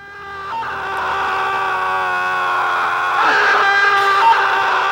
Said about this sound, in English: The double yell.